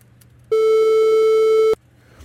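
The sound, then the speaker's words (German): A steady synthesized tone built from only odd harmonics whose amplitudes fall off steeply, buzzy and slightly hollow, sounds loudly on its own for just over a second, starting and stopping abruptly. “Also sehr stark nehmen die Amplituden ab und wir haben auch nur die ungeraden drin. Dadurch haben wir ein klein wenig volleren Klang, ein bisschen höheren.”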